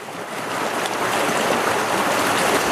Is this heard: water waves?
yes